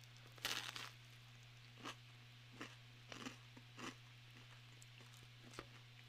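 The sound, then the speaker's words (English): A loud crunchy bite into cheesy garlic bread, followed by several rhythmic crunching chews spread over a few seconds, with a steady low hum in the background and no talking. “I don't know if you got that, but it was crunchy.”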